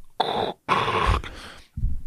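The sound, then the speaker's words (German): A voice wearing a mask imitates Darth Vader's heavy, rasping mask breathing: two long, loud, hissing breaths with a growly edge, followed by a shorter one after a brief pause, with no talking. “das ist witzig, weil ich trage eine Maske. Hört ihr mich atmen?”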